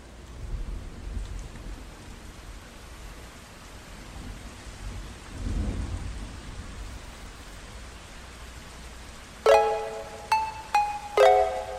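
The intro of a song: steady hiss of rain with a low, swelling roll of thunder partway through, then a few bright, sustained musical notes enter at the end over the rain.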